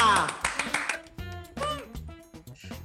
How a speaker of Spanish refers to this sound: Este aplauso para recibir a mi maestra,